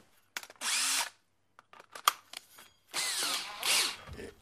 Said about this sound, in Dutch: Maar hier bovenin, daar komt een gat en daar boor ik erin.